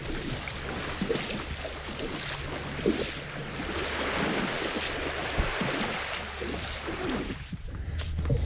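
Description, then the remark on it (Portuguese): A small boat runs aground in shallow water, with a steady low engine drone, continuous rushing and splashing water, and gusty wind buffeting the microphone, fairly loud throughout. “Já está encalhando. Já está encalhando? Uhum.”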